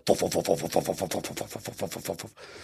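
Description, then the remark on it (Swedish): A red helicopter's rotor chops in a fast, steady run of heavy thudding beats as it comes down, loud and unbroken for about two seconds before cutting off abruptly. No one speaks over it. “oh, eh, hold on to your coffee tables because there's a helicopter coming.”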